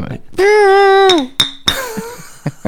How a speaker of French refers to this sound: Les bruits des verres qui s'entrechoquent.